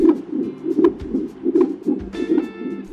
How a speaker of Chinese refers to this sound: 那像很多人就他说，我平生第一次收到的邀请函是你的心跳声。